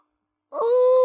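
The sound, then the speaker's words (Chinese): After a brief silence, a voice imitates a big, drawn-out yawn by the sleepy character Nini in a children's story: a loud, steady, moaning tone that holds its pitch and swells slightly before cutting off abruptly. “这时，妮妮打了个大哈欠，他觉得很困。”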